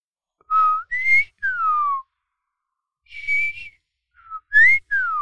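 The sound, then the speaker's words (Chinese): A person whistles an imitation of a Taiwan whistling thrush: two bursts of shrill, sliding notes that leap upward then sweep down, separated by a short pause, with no talking. “那紫啸东，好，我们来学一下紫啸东的声音。”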